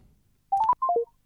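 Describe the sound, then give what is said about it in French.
Quick electronic telephone keypad tones, two short bursts of three beeps each, the first run stepping up in pitch and the second stepping down, clear with no voices. “Ah, mais là, c'est mon téléphone qui veut plus.”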